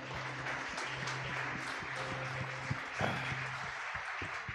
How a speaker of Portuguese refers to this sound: Aplauda Jesus.